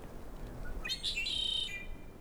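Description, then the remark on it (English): A red-winged blackbird gives one bright, buzzy call lasting about a second, on the Mirror Lake Trail in Yosemite, over a low outdoor rumble with no one speaking. “red on his wings. How yeah, pretty. red-winged blackbird.”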